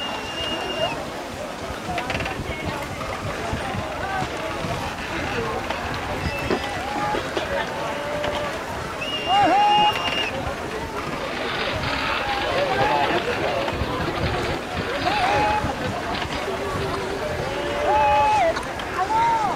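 A reconstructed busy river port ambience: a dense wash of crowd murmur and activity around boats, with water sounds and occasional short whistle-like calls rising above the steady background din.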